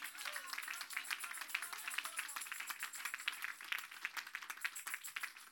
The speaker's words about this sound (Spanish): Dele un aplauso al redentor.